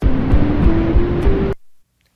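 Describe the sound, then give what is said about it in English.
EEG brainwave signals from a test subject in Kraus's lab, recorded while listening to a simple scale, played back as sound: a loud, dense fuzzy crackle of neural activity with a faint steady hum running through it, lasting about a second and a half before cutting off abruptly. “These are the sounds of actual brainwaves from actual test subjects in Kraus's lab.”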